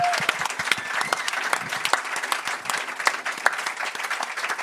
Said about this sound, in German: Merci viel, viel mal, seid ihr da. Das ist mega schön. Merci. Ja. Applaus für euch auch.